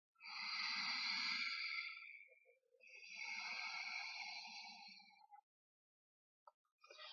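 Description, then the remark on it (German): Two long, soft rushing breaths drawn through a gently constricted throat while breathing into the belly, an inhale then an exhale, each lasting a couple of seconds with a gentle hissing hush, steady, followed by a brief start of another. “Dann ziehe beim Ein- und Ausatmen die Kehle sanft zusammen, sodass ein sanftes Rauschen entsteht.”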